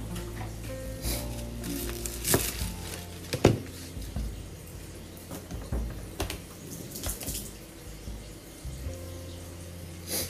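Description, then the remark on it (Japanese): Tap water runs steadily while cut lettuce for a salad is rinsed under it, with irregular splashes and soft pattering breaking through the hiss. No one speaks. “レタスもあったのでレタスも切って洗ってサラダとしてバクバク食べようかな。”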